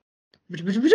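After a brief silence, a fast-forward sound effect kicks in: a warbling, sped-up tone that climbs steadily in pitch and grows louder for about half a second.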